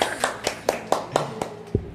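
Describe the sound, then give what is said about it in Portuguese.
A few people clap in a steady, quick rhythm, about eight sharp claps over two seconds, welcoming an arriving guest at Estúdio 78, with faint background noise underneath and no voices. “Palmas para o nosso convidado.”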